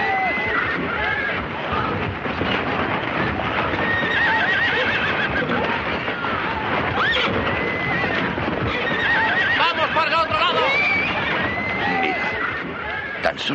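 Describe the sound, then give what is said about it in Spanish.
Riders' horses gallop toward a guarded village palisade in a dense, continuous thunder of hooves, with several loud whinnies and neighs rising above the pounding rhythm, and a faint murmur of voices mixed in underneath. “jinetes se acercan a la empalizada vigilada por Shichiroji y su grupo de campesinos.”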